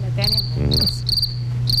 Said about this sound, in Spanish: En vez de una chicharra puede ser un grillo, dicen acá.